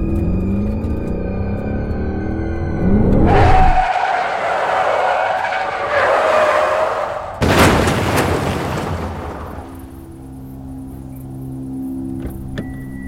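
A car engine revs up at night, then tires screech loudly for several seconds before a heavy, sudden impact as the car strikes a pedestrian standing in the middle of the street, fading into a low, steady hum. No voices.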